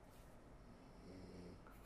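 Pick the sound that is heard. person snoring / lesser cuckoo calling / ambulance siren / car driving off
person snoring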